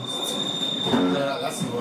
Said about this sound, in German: Es fährt gerade ein Zug durch.